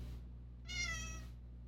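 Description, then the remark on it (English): A single drawn-out cat meow, clear, lasting about half a second over a low steady background hum, with quiet moments before and after. “Despite whatever pharaonic affiliation those squirmy critters may claim to have, the hairless sphynx cat is in fact not an ancient Egyptian breed.”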